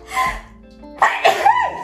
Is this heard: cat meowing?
no